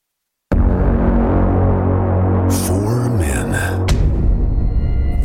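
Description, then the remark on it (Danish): A short, loud jingle that kicks in abruptly: a deep, throbbing droning tone rises in pitch partway through, with bright crashing bursts layered on top before it settles. No voices. “Thijs har lige sendt den her jingle.”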